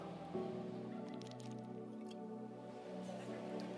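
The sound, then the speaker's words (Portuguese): Someone takes a quiet sip of water, with a few soft, wet gulping and swallowing sounds over a steady, low humming background tone. “Dá licença, posso beber uma água?”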